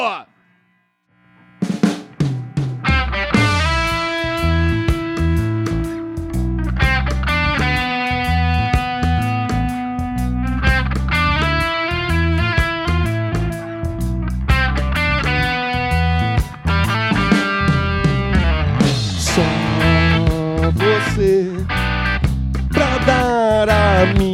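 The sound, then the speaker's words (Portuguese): A full band plays loudly after a brief moment of silence, with steady drums, bass and layered guitars or keys, and what seems to be a sung vocal line running through, performing an unusual new version of a classic song. “a gente fez uma versão um pouco inusitada dessa canção.”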